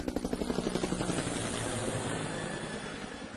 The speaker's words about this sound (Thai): Yeah that's a helicopter a helicopter or a chopper เรียกได้สองคำนะครับ helicopter หรือ chopper a chopper C H O P P E R นะครับ a chopper or a helicopter